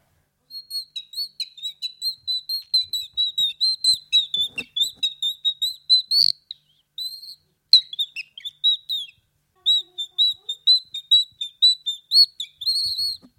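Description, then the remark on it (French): A bird call whistle imitating a nightingale's song: long runs of rapid, shrill, high-pitched chirps in quick bursts separated by brief pauses, fairly loud and with no talking. “Et là, c'était le rossignol.”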